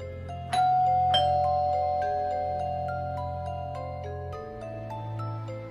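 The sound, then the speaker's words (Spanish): A doorbell chime plays a short melodic sequence of ringing tones, two bright strikes followed by several lingering notes that step along and slowly fade, heard clearly with no talking, as a friend rings the doorbell on Halloween night. “Cuando por fin Nathan tocó el timbre, salí afuera corriendo.”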